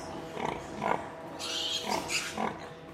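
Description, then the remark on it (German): A sow grunts in a steady rhythm while nursing her piglets as the milk comes, low repeated grunts about every half second, with higher squealing or rustling from piglets in the background. “Die Sau beginnt rhythmisch zu grunzen.”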